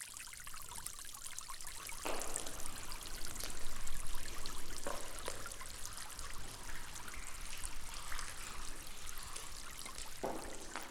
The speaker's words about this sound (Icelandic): Þeir voru vanir vélagni og sprengingum í náminni en núna var ekkert nema stöðugu ströymur á vatni og stöku steinar að falla.